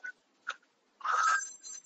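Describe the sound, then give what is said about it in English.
A telephone rings with two short electronic chirps followed by a longer, louder warbling trill, with no voices present. “it the phone, dummy. Answer the phone!”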